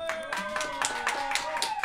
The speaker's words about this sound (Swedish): Hallå alla kära lyssnare. Jag tycker ni applåderar dåligt ute i studion.